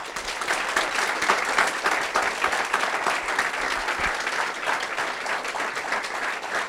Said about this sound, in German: Und lass uns mit einem kräftigen Applaus, wirklich kräftigen Applaus, unseren Gastsprecher heute begrüßen